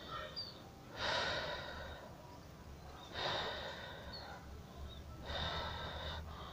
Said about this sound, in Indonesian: pokoknya dibuang dulu nafasnya dari mulut dibuang dulu sebanyak-banyaknya